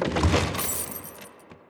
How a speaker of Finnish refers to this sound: Ottakaahan tästä! tokaisee ylikersantti ja laskee laatikon maahan.